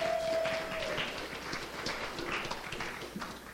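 An audience claps together, a dense, steady wash of many hands slapping at once with no voices. A faint sustained tone hangs underneath for the first second before fading.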